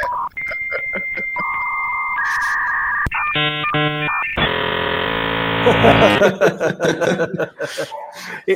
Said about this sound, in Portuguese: A gente tinha lá o famoso modem que discava e fazia uma conexão